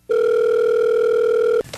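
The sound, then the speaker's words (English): A telephone ringing tone on an outgoing call to a Google department: one steady electronic burst lasting about a second and a half, clear and fairly loud, ending abruptly with a brief clatter of noise. “So I'm going to give them a call and uh, see what we can do. Oh, it's ringing.”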